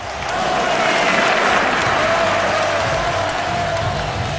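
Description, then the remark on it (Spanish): A sustained burst of audience applause and cheering fills the space, dense clapping from a large crowd holding steady and loud throughout, with no talking over it. “Aquí seguiremos con ovaciones y ya vendrán las broncas, pero para la próxima entrega.”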